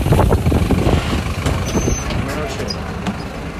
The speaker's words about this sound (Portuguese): Pera aí que agora eu vou entrar no ônibus aqui.